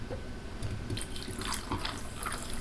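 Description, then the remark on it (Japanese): A freshly poured carbonated drink fizzes, a steady crackling hiss dotted with tiny popping bubbles that continues evenly throughout, with no voices present. “ごめんちょっとあの炭酸はじける余韻聞いてていいいいようんえんって 気持ちをなってたわ少年ごめんごめんいや夏やんって感じするやん”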